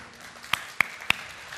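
Three quick, sharp hand claps in an even rhythm, a brief bit of applause over a faint background hum with no talking.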